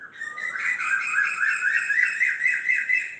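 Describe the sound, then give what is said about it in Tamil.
A harsh, raspy crow call sounds, sustained for about three seconds with a wavering, pulsing quality. No voices accompany it. “இடையில் ஒரு கக்கையின் கோல் காக்கையை மட்டும் கத்துகிறது என்று தான் சொல்கிறோம் குயிலை கூவுகிறது என்கிறோம் ஆனால் காத்தையின் காக்கையினுடைய கத்தலில் கூட ஒரு மிழற்றல் இருக்கிறது ஒரு அதிசயம் இருக்கிறது அபூர்வமான சங்கீத துவனி இருக்கிறது”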